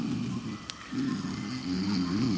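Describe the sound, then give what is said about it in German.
A person imitates the snoring of someone taking a nap, with two long, low, rumbling breaths separated by a short pause. The second breath wavers slightly in pitch. It is fairly loud, with no talking. “scheint gerade äh, zu ein Nickerchen zu machen und das Feuer gar nicht zu bemerken.”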